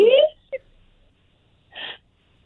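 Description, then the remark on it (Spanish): A mother sobs in short bursts as her son asks her forgiveness: a wavering, high-pitched cry, a quick catch of breath, then a shaky, breathy sob after a brief pause, fairly loud. “¿Está llorando?”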